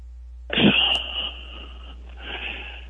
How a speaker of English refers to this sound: Uh, I am. I was sorry. I was um, coughing.